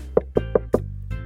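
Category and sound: sound effect, knocking on a door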